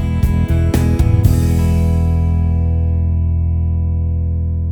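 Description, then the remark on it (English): A brief electronic keyboard accompaniment-style ending, the short first ending button pressed while the style plays: a few quick drum hits over a full chord in the first second, then one held chord ringing out and slowly fading. No one speaks. “Ending number one sounds like this.”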